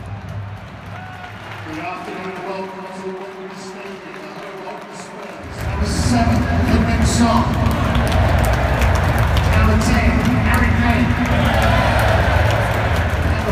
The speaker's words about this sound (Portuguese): Entrando no estádio então, antes do jogo começar, vamos sentir um pouco do clima de Wembley, né? Com a torcida já é, lotando o estádio.